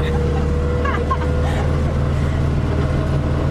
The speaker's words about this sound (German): Ich fahre gerade das erste Mal im Leben Traktor.